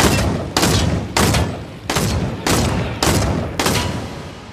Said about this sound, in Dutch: En als je pech hebt, draai je om en staat er iemand achter je die al eerder een geweer te pakken heeft. En die schiet je heel erg hard neer. Pats.